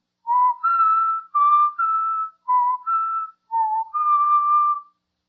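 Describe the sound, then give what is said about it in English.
Someone whistles a short, clear melodic phrase of eight notes, B, E, D, E, B, E, A, D, grouped in pairs, fairly loud, with brief pauses between groups and no talking. “Let me see if I can whistle those notes written in the musical theme.”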